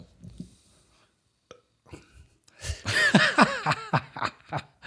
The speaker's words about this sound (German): Ich muss gleich schon am Anfang der Sendung aufstoßen.